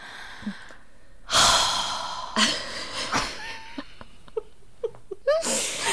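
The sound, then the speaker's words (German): A voice mimics loud, heavy breathing, imitating the speaker's own breathing while watching a film: several forceful, airy huffs, the longest up front, with short clicks and murmurs between them and one last breath at the end. “dann habe ich auch so ganz laut so geatmet so.”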